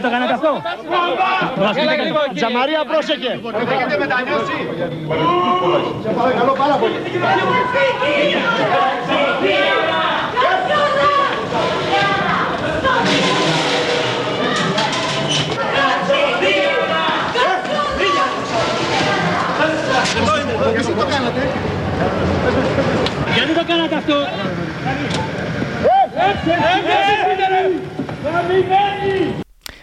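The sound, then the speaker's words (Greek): An angry mob of many voices shouts insults and jeers over one another at a woman being led out of an arcade to a police patrol car, loud and continuous, with angry yelling rising above the din throughout. “αν άκουγε τον όχλο που την έβριζε, καθώ την φυγάδευαν από τη στοά, οδηγώντα την στο περιπολικό.”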